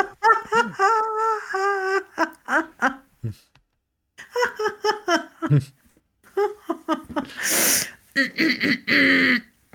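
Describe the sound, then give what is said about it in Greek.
A voice imitates a car engine cranking with rapid, rhythmic, rasping vocal bursts that stutter and catch, broken by brief pauses and a short breathy hiss. “Αλλά ναι, αυτό τον ήχο κάνει το αυτοκίνητο ακριβώ.”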